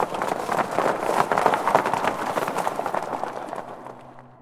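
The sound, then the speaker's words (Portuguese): Horse hooves clip-clop in a quick, steady rhythm, loud at first, then fading away toward the end, as horses are ridden on a horseback outing. No one speaks. “No dia seguinte, o Robert então fez o que estava combinado, era uma quinta-feira, e ele foi lá e buscou a Jen na aula de piano para eles irem passear de cavalo.”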